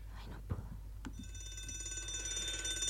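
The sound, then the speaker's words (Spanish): After a couple of soft knocks, an alarm clock starts ringing, a shrill, rapidly trilling electronic tone that keeps going steadily to the end. “Y el despertador volvió a sonar.”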